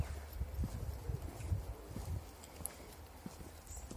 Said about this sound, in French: J'espère que tu entends. Je marche sur une route de campagne barrée. Donc il y a très peu de passages. Au bord de la baie de la Frenaye, en Bretagne, dans les Côtes d'Armor. Je me dirige vers le Cap Fréhel